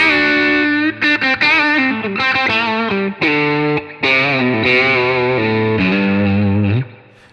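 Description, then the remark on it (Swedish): A distorted electric guitar plays a single-string riff low on the bass strings, demonstrating its low-mid tone, with chunky, ringing notes separated by short, choppy stops and a sustained note to close. No one speaks. “Alltså, det är lätt att hålla till på bassträngarna för att den har sån... Tjong. Tjong i bassträngen, men på diskantsträngen låter det lite grann så här.”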